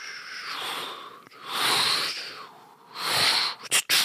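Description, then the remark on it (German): A voice imitates a steam iron's hiss with three long, breathy 'pssh' bursts in a row, ending in two quick, sharp puffs. Moderately loud, with no speech. “Wie geht denn das Geräusch vom Bügeleisen? Psch”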